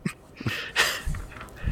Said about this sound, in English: I didn't want Freya to bark and make things annoying. Oh, that's a that's a tall order to prevent. I know, but she would at any noise at the door, she goes fucking insane.